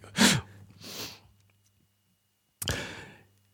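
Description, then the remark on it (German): Three loud coughs into the microphone: a harsh burst followed quickly by a softer one, then after a pause of over a second, another sharp, forceful cough with no talking. “Wenn du, während du noch lautstark ins Mikrofon oh, hustest, kann ich auch genau.”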